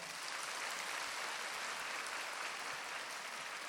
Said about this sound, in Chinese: 鼓掌